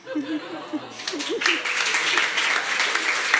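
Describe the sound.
A brief spoken phrase trails off, then a crowd breaks into steady, dense applause that builds and holds at a lively level, with scattered chuckles and voices mixed in.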